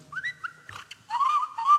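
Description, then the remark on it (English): Someone whistles, first a few short pitched chirps, then a longer, louder sustained tone that wavers slightly before ending, with a brief breathy burst in between. “So I can whistle and”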